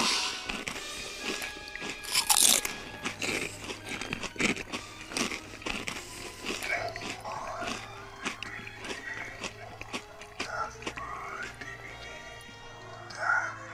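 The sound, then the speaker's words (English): Crunchy munching of black legumes as a snack: rapid, irregular bites and crackly chewing that continue steadily and loudly for several seconds, punctuated by a few sharper crunches. “Become a real creature and munch our black legumes.”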